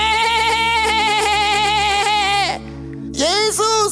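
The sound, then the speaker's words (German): A person imitates a sheep's bleat: one long, loud, quavering 'baa' followed by a brief pause and a shorter second bleat. “Er kommt mit dem Stab und schiebt ein Schaf weg. Weißt du, was Schaf sagt? Nee!”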